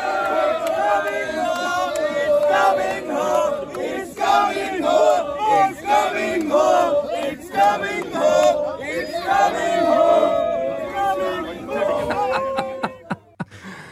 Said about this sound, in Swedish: det katariska fake fans uh, tåget när de körde “It's coming home”